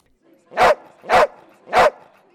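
Three loud, evenly spaced dog barks ring out at a dogs-only cafe in central London holding a celebration of the Queen's pet dog, each short and sharp, over a faint background murmur of voices.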